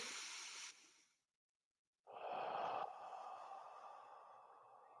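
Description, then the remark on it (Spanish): A deep breath drawn in during a guided breathing exercise, a brief pause of silence, then a long, steady exhale. Both are clearly audible, with no talking. “Vamos a hacer una respiración.”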